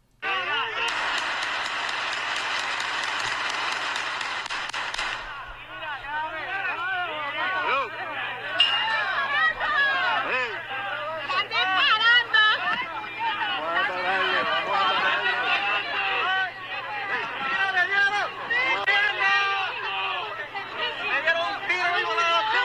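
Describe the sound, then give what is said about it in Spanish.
A dense burst of more than 15 rapid 9 mm gunshots fills the first few seconds, then gives way to many people screaming and shouting in panic, loud and chaotic, continuing to the end. “Más de 15 disparos, esa ráfaga de disparos, 9 milímetros y otros casquillos que habían allí.”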